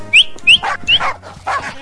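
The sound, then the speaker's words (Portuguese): A dog gives several short, high yelps and whines in quick succession, fairly loud, with a few breathy barks mixed between the whimpering cries. “Mas o terraço é grande e lá não entra ninguém, o cachorro desse tamanho.”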